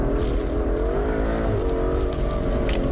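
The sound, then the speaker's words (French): A 720-horsepower sports car engine runs steadily and loudly, its deep harmonic growl rising and falling slightly in pitch as it revs, with no talking. “720 chevaux. Autant dire qu'en conditions normales d'utilisation et donc aussi ultra sportive pour les chanceux qui euh, pourront euh, s'offrir une telle voiture.”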